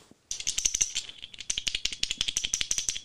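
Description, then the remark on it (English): A toddler's bell with no ball inside, kept on a desk, is shaken, giving a quick, steady string of dry, bright clacks and rattles with no real ringing tone, fairly loud and with no voices. “the shittiest bell ever. It's terrible. Actually, it doesn't have the ball inside.”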